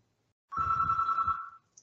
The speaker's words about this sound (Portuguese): Ai, meu Deus, Oi. tocou o telefone aqui.